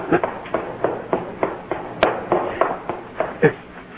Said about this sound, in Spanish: Parece que alguien se fue corriendo, pero mis hombres no le dispararon.